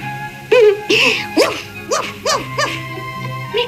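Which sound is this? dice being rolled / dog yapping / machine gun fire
dog yapping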